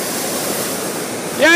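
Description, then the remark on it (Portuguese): A steady, loud hot air balloon burner roars as one continuous blast of rushing flame, heating the balloon so it can climb, and a voice starts speaking over it right at the end. “Vamos subir, estamos aquecendo o balão para a gente poder alcançar ah, as é alturas.”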